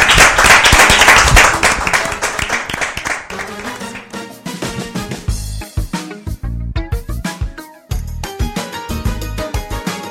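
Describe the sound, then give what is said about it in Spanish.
Loud audience applause fills the opening few seconds, a dense wash of clapping that fades as a rhythmic music track with a steady bass beat takes over. “Aplausos a todos.”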